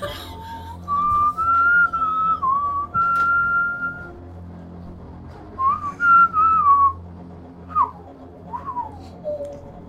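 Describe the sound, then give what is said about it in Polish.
A man's singing played on a whistle in a film: a clear, tuneful whistled melody rises and falls in sustained phrases with short pauses, carrying a song-like line over a low, steady background hum. No one speaks. “To jest jego śpiewanie, bo on ma tylko gwizdek, nie?”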